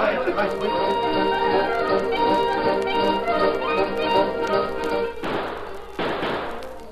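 Three gunshots, fired in the woods as a signal by hunters, ring out near the end, loud reverberant bursts cutting in after a stretch of sustained orchestral music.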